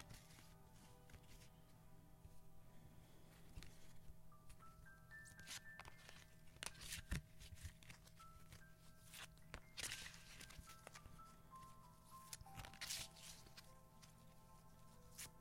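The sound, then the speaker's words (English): Soft, gentle shuffling of a deck of cards by hand: quiet papery rustles and light taps in irregular bursts over a faint steady background hum, with no voices. “And then I just start to gently shuffle them.”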